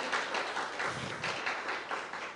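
A church crowd applauds a pastor, a dense steady wash of many hands clapping at once, sustained at an even, fairly loud level with no voices standing out.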